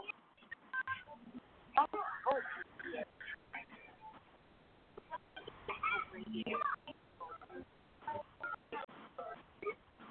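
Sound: telephone dialing tones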